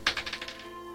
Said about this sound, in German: Würf, okay. Würfel du auch erstmal und dann sagen wir es gleichzeitig. Wer würfelt.